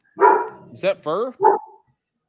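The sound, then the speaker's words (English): A dog barks several times in quick, uneven bursts, with a voice mixed in among the barks. “That's a dog. That's a dog.”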